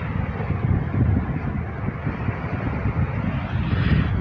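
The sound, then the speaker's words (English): A steady, rumbling roar of ocean waves at the seaside, with low wind-like wash and a slight surge toward the end; no one speaks. “we are at the uh, seaside and we have these wonderful waves which you can i'm sure you can hear in the background”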